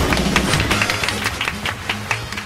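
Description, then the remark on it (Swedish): An audience applauds steadily for a couple of seconds for the newly chosen Lucia of Gothenburg, a dense, even patter of many hands clapping at once, with a faint murmur of voices underneath. “Lucia, det blir applåder här för detta.”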